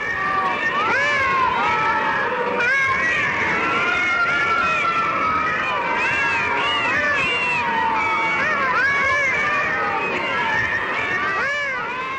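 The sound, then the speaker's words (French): A dense chorus of more than a thousand caged cats meowing and yowling at once in a hangar next to a filming site, overlapping cries rising and falling continuously, loud, with no pauses. “Chats costumés, chats drogués, chats battus, les bêtes sont plus d'un millier parquées dans des cages dans un hangar à côté des lieux de tournage.”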